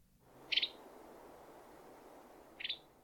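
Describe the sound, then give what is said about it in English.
Two short bursts of rapid, chattering calls from a flock of western tanagers feeding on small fruits among the foliage of a fig tree, each a quick run of high notes, spaced about two seconds apart over a steady background hiss. “From time to time, between bites of the small fruits, you can hear their rapid calls.”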